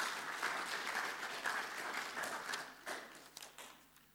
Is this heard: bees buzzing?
no